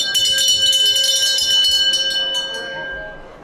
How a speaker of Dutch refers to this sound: Ik, ik ga heel even tussendoor even de schoolmeester uithangen hoor. Ik heb hier nog steeds eens dus een mooi bel liggen hier.